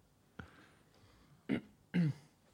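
Three short coughs from someone close by, the first light and the next two louder and harsher, spaced about half a second apart with no talking around them.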